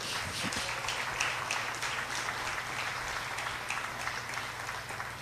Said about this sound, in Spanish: Le puedo dar un aplauso al Rey.